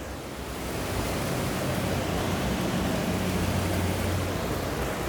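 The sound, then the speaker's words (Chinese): Heavy rain with thunder pours down in a dense, steady hiss that holds at one level, with a low rumble of thunder underneath. The rain has fallen since morning and is recorded around midday. No one speaks. “呜，打雷耶，你有听到吗？”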